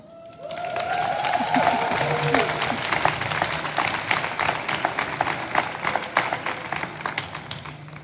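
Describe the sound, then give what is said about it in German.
A live audience at a conference forum at the CCH in Hamburg bursts into sustained applause with cheers and whoops, dense overlapping clapping for several seconds at a steady, loud level. “Und ich würde euch einmal bitten, liebes Publikum, ein bisschen Lärm zu machen, damit man das im Nachhinein auch glaubt.”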